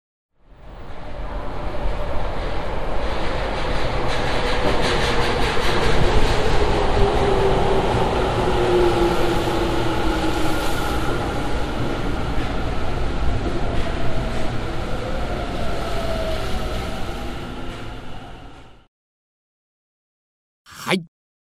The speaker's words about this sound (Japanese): 地下鉄は、ホームに入線したところを収録しました。先ほどの電車との違いも楽しんでいただければと思います。ああ、なるほどね。それでは、地下鉄のバイノーラルオーディオです。